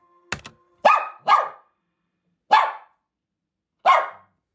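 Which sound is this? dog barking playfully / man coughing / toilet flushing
dog barking playfully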